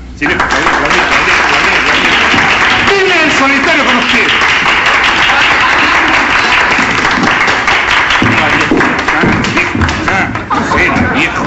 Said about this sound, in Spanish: Así que queridos amigos, venga un cariñoso y entusiasta aplauso para él. Aquí lo tenemos. Ven que se aplaude.